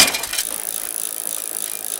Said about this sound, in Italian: La prima caduta dalla bici.